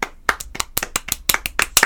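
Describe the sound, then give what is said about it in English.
A crowd of people giving a round of applause for West Games, a dense patter of sharp, bright hand claps overlapping in an uneven rhythm, fairly loud and with no one speaking. “Just a bunch of people clapping and a cool.”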